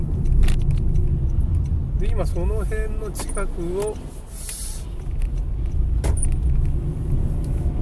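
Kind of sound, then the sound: vehicle, car driving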